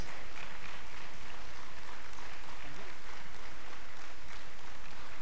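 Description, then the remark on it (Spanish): A crowd claps steadily for several seconds, applauding God, a dense, continuous patter of many hands at moderate loudness, with no clear voices standing out. “¿Por qué no le dan un fuerte, un fuerte aplauso a Dios?”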